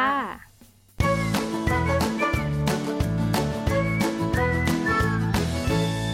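music played

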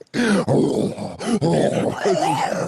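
pet growling

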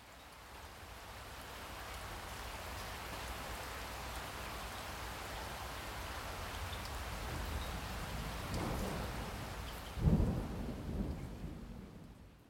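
rain falling

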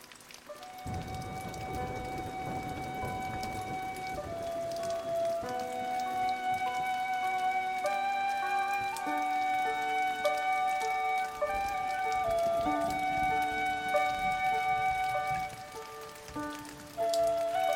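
rain falling

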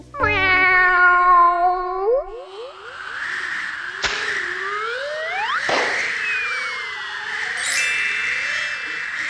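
cat meowing

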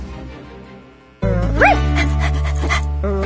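small dog barking

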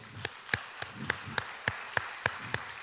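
audience applauding

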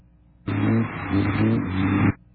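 race car passing by

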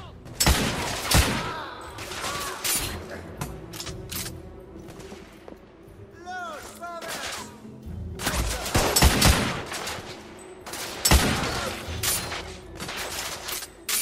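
gunfire

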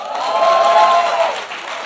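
audience applause and cheering

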